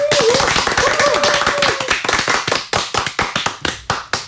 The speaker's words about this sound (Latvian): Un tūlīt aplausi skanēs ģimeniskākās mīklas autorei bērnu dārza mūsu poga skolotājai